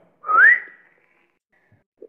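One short human whistle, given as a command to jump off a wall, that glides upward in pitch, clear, followed by near silence and a faint click at the very end.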